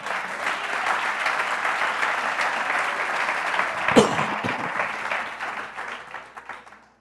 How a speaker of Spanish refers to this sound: ¿Cuántos dan un aplauso al Señor?